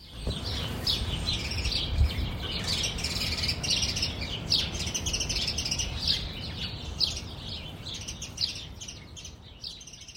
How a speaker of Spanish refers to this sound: con el sonido de los pájaros, que son los pájaros de mi jardín en Brooklyn.